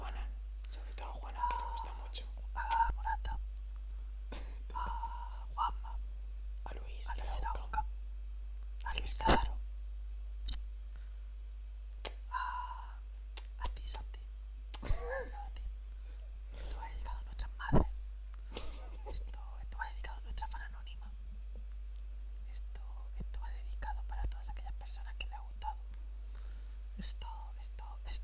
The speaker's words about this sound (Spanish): Vale, vamos a hacer un minuto de SMR.